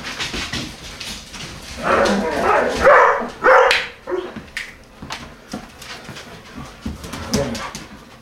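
Four collies run, bark and yelp in an excited flurry, loudest in the middle, with whimpers and scuffling movement mixed in. The barking overlaps, then thins into sporadic yips.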